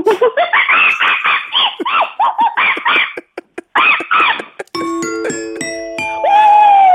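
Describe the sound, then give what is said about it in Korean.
A 32-year-old woman imitates monkey calls: a rapid, loud string of rising, screechy hoots and chatters, cut off and followed by a bright electronic chime jingle. “자, 원숭이 다시 한 번 들어봅니다.”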